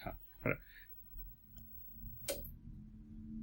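A CRT television gives a single sharp electrical snap when switched off, preceded by a softer click, with a low steady hum and faint room noise continuing afterward.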